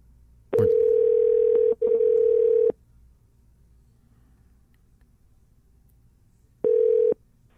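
A steady, loud telephone dial tone sounds in two long bursts with a brief break, followed by silence and then another short tone, like a call being placed over a quiet line.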